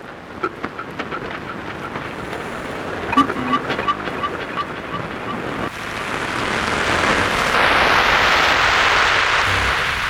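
A Mediterranean Sea soundscape from the work The Density of the Transparent Wind by Michele Ciacciofera: steady surf and wind-blown water, with faint rhythmic ticks early on before a louder, rushing swell of waves builds and fills the second half.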